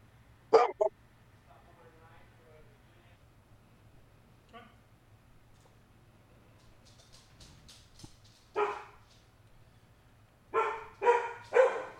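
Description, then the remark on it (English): A dog barks sharply once near the start, then goes quiet before letting out a burst of several loud barks toward the end, with soft background sounds in between. “Now you're barking?”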